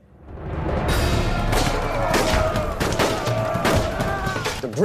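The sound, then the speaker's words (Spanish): Dense, continuous gunfire from British soldiers firing without stopping at Zulu warriors in battle, overlapping rifle shots cracking in rapid succession, loud and sustained like a battle volley, with a faint murmur of voices underneath. “Los británicos seguían disparando sin parar, pero ni siquiera sus armas pueden superar el valor y el enorme número de los guerreros zulúes.”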